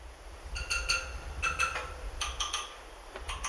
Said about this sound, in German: Hoch oben auf den Stützen greift er außerdem immer wieder zum Hammer.